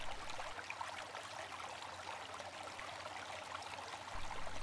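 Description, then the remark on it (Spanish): A gently flowing stream slides slowly over rocks between trees, a steady soft babble and trickle of water that continues evenly throughout, calm with no voices. “Imagina una hermosa corriente que fluye lentamente.”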